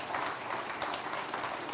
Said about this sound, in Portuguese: Coloca a tua Bíblia no banco e aplauda o Senhor por essa palavra.